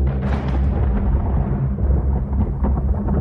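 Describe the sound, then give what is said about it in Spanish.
A loud thunder clap breaks into a heavy, deep rumble that rolls on for a few seconds, its brighter edge fading as the low growl continues. No voices are heard. “escucharon un trueno.”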